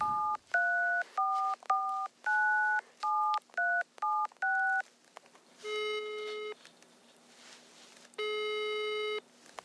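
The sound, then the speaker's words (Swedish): A quick run of about ten dual-pitched keypad tones as a phone number is dialed to call a man at his work at Nasdaq, followed by two longer steady electronic tones from the phone line, all heard alone. “ja, men då ringer vi.”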